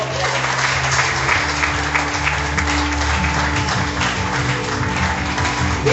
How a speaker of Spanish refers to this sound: Amén. Amén. otro aplauso al Señor, por favor.